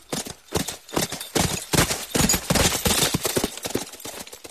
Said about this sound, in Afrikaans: Dus saal Olaus sy perd op en hy ry na 'n bos naby sy koninkryk toe